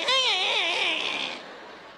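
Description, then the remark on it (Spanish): A single drawn-out creak of a house door opened at night, high and squealing with a wavering, meow-like pitch, fairly loud, fading out after about a second and a half. “Esa puerta en el día no hace ruido. Ah, no, en la noche como que un gato le metieron.”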